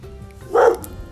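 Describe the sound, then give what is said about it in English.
A single short, clear bark from the speaker's dog, standing alone against a quiet background with no talking. “Oh, and there's my dog.”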